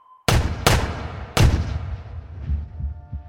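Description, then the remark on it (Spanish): Three loud shots from a .22 caliber rifle, fired point-blank from a window in California, United States, in 1964, the first two quickly paired and the third after a short pause, each leaving a booming echo that fades into a low rumble. “Disparó a su abuela desde la ventana con un rifle calibre 22 como si fuera de cacería Tres disparos a quemarropa, la vieja cayó al césped.”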